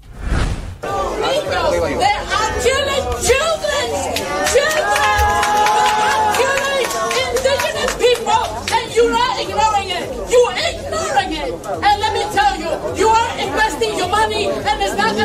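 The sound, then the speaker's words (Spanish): A loud, dense commotion as two protesters confront Dina Boluarte at a Pacific Alliance event held within the UN, many people shouting and talking over one another at once, with sharp bangs and scuffling mixed in, sustained throughout. “Escuchamos un poco de ese tumulto para después ir al mensaje de Boluarte en la ONU.”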